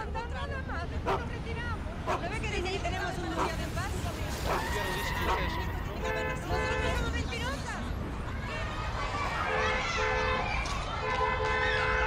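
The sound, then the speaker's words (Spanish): Busy city traffic at half past eight in the morning as the working day begins, with a steady engine rumble and several car horns honking in sustained, overlapping blasts, while an indistinct babble of voices runs underneath throughout. “Como pueden escuchar, hay bocinas, algarabía, todo el bullicio que genera una ciudad cuando se apresta a empezar el día.”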